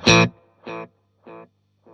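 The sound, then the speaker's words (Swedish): A tape delay pedal using its second tape head, with some compression switched on, repeats a gritty, harmonically rich note, followed by three evenly spaced echoes that grow steadily quieter, with no voices present. “För det första ni hörde här är ju alltså ett tejphuvud och man kan alltså ha flera sådana här tejphuvuden.”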